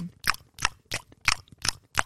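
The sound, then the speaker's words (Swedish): Wet smacking of someone chewing gum: six steady, moist bites at an even rhythm over about two seconds, fairly loud against a quiet background, with no talking. “Det blir du också irriterad på när man sitter och tuggar tuggummi.”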